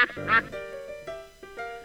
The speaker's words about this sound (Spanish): esos patos, esos patos.